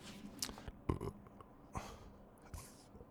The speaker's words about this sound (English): Now, I've done something that I don't recommend talking while there is still food in my mouth. So that made me gulp because I had to swallow my food suddenly all at once. So you gulp when you swallow too fast or too much of anything in a single bite.